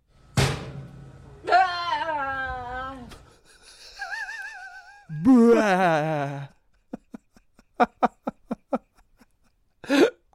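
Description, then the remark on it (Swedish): A woman's voice imitates a grill lid being slammed shut: drawn-out, wavering vocal creaks and groans, then a quick run of sharp, clicking thumps and one final short burst, fairly loud. “Nu ska hon försöka imitera hur det låter när man smäller igen en grill.”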